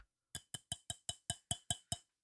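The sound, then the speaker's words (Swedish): Glasses clink together nine times in a quick, steady rhythm, like a toast. Each tap is short, with a dull, slightly plasticky ring, though the glasses are not plastic, and no voices can be heard. “Där har vi dåliga glas jag måste köpa nya.”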